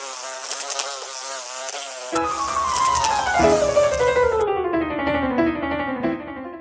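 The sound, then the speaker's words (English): Flies buzz loudly, a continuous droning whine that wavers and shifts in pitch, with a second buzzing layer joining partway through and sweeping steadily downward. “Wouldn't it be wonderful if your horse could enjoy a zone of repellency from pesky flies?”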